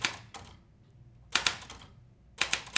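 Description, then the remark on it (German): Sharp clacks of an old Konsul mechanical typewriter, set up on the top of a writing cabinet, being typed on, arriving in quick clusters of keystrokes separated by short pauses, with no voices. “In einem der Wäscheschränke hatte Karl die alte Schreibmaschine seiner Mutter entdeckt.”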